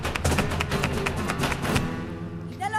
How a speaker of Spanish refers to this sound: oyes, Luke, el zapateo? Sí. ¿Sabes ya lo que es zapatear? No. Taconear.